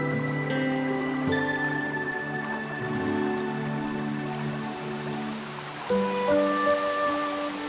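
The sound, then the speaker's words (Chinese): Heavy rain growing ever heavier, a steady, dense hiss pouring without pause, with a few sharper patters, while sustained musical tones hold underneath and shift in pitch near the end. “但是雨越下越大，就好像上天从天上往下倒一缸又一缸的水，河水不停地涨。”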